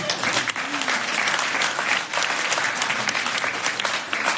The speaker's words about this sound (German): Und für mich war die Herausforderung, ey, ihr könnt gerne klatschen.